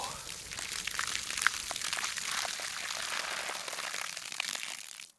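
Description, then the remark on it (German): Water splashes steadily for about five seconds from a watering can taken from a windowsill, poured to put out a burning insurance policy; a hissing, trickling pour that stops abruptly at the end. “Ach, da steht eine Gießkanne auf der Fensterbank.”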